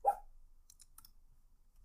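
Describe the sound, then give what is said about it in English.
A single short, sharp bark from a pet dog named Jesse, followed by a few faint high clicks like claws tapping on a hard floor, then near silence. “Sorry, but um, the, my dog Jesse has joined me.”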